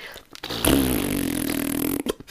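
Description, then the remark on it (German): A voice imitates a feeble fart: one sustained, buzzy, sputtering blow of about a second and a half that trails off, with nothing else alongside. “Die haben so stark eigentlich gestartet und jetzt ist McLaren so, ich kann nicht mal furzen.”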